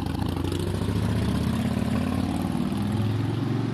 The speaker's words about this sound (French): À travers cette fenêtre, je n'aime pas voir les voitures passant un peu trop vite.